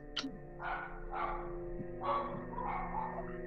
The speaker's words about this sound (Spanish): Ahí, ahí los perros. Eh, son los de los vecinos, me están aventando los perros los vecinos.